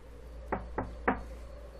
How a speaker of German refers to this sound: Dann klopfen wir doch im Hause Wolf.